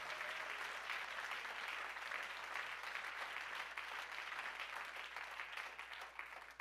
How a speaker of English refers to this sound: Why don't you clap your hands unto the Lord and give him praise?